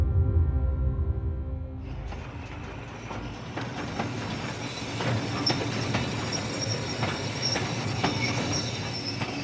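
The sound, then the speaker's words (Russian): Train wheels rumble over the rails as a train reaches a small station near Kharkiv, starting as a low drone and opening into a steady rolling clatter with sharp metallic squeals and clicks scattered through it. “британский журналист Гаррет Джонс сходит с поезда на небольшой станции под Харьковом”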